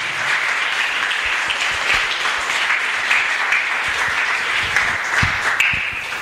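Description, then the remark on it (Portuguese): An audience applauds steadily, many hands clapping in a dense, continuous wash of sound with a few sharper claps standing out, holding at an even, fairly loud level throughout. “Dê uma linda salva de palmas e Deus abençoe os irmãos irmãos, em nome de Jesus.”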